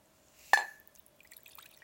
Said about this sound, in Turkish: Su koyuyorum.